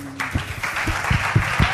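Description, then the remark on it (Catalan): A short burst of applause from a small group during a radio programme, a steady wash of clapping with a few louder claps thumping irregularly through it. No one speaks. “un aplaudiment.”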